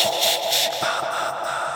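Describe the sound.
Heavy, breathy exhalations with a rough, hissing texture, rising and falling in quick pulses over a steady noisy wash, fairly loud, with no talking.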